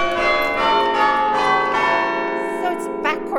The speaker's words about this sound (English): And that's the opposite to the chime that I rang okay. initially, which was.